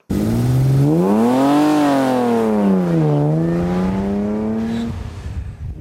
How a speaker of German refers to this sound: Ja, derartig Motorengeräusch vom Renn-Oldtimer, wo bald so im Oberengadin wieder Drohnen tönt. Weil nach über 90 Jahren findet Anfang vom September wieder die internationale St. Moritzer Automobilwoche an.